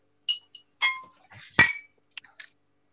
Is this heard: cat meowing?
no